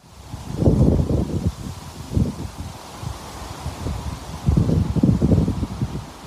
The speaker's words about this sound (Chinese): 就会有树叶，呃，风吹过树叶，嘶嘶嘶嘶嘶的声音。我觉得它是我能够躺在草地上睡觉非常非常重要的一环。确实是一个很好很好的环境音，而且你就感觉树在和你说话嘛。